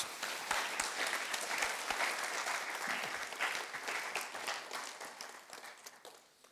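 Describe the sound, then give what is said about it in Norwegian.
A church audience applauds a man after a prayer of blessing over him, a dense wash of many hands clapping at once with a few sharper individual claps, holding strong before gradually thinning and fading toward the end. “Gi ham en applaus.”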